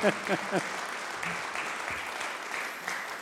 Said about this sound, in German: Geben wir ihm einen Applaus.